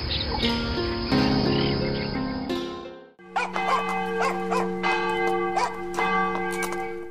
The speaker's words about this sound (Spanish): Las campanas del pueblo están llamando a la misa de seis. Ese sonido mineral viaja por entre el valle y avisa a los campesinos para que suspendan sus labores y regresen a casa.